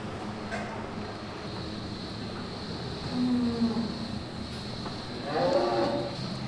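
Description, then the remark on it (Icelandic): Cattle moo in a cowshed, two low, drawn-out calls about two seconds apart, the second fuller and louder, over a steady hum of ventilation or machinery and faint clatter. “Eftir þessa fínu fjósaferð er komið að lokum í sögum af landi í dag.”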